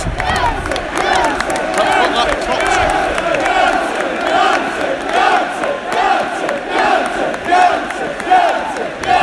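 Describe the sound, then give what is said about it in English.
A big football stadium crowd roars and cheers continuously for Jesse Lingard, a dense wall of massed voices with rising shouts and swells, loud throughout with no single voice standing out. “Loudest cheer reserve for Jesse Lingard, absolutely no doubt.”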